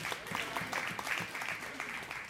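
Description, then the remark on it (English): A burst of audience applause, many hands clapping in a steady dense patter at moderate volume, filling the space for a couple of seconds with a faint murmur of voices underneath. “You don't need to clap, but.”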